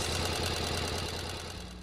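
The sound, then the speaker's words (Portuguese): A sewing machine runs steadily, stitching a shiny silk dress, its motor whirring with a rapid, even mechanical chatter that stays loud throughout, with no voices. “A máquina de costura avançava sobre o vestido de seda brilhante, espalhando luz, luz, luz.”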